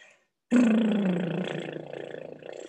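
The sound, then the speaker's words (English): A person blows a long, buzzing lip-flutter exhale like a horse's snort, puffing the lips to slow the exhale as a breathing technique for coping with labor contractions, starting abruptly and loud, then sputtering for about two seconds as the pitch slowly drops and fades. “so you puff your lips like that and it's slowing down your exhale is what that's doing and it really really helps”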